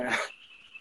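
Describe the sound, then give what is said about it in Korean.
A frog gives one short, raspy croak, followed by a faint lingering high tone and quiet background; no one speaks. “아, 개구리가 울고 있네요.”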